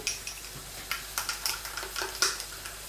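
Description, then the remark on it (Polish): A utensil stirs a sauce of meat and garlic with water, tomato purée and spices in a frying pan, giving repeated soft scraping and clinking strokes at an irregular rhythm over a faint steady sizzle, with no talking. “Przemieszam raz jeszcze i całość przelewam.”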